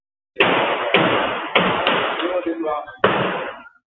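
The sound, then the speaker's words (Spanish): Five loud, sharp gunshots in an irregular sequence, each a muffled, lo-fi bang with a short ringing decay, recorded by a bar's security camera during the 6 July 2021 shooting of journalist De Vries on an Amsterdam street. A brief voice-like sound comes between the fourth and fifth shots. “Esos tiros proceden de la cámara de seguridad del bar donde estaba el 6 de julio de 2021.”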